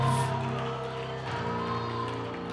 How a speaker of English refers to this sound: Clap your hands to the Lord. Shout unto God with a voice of triumph.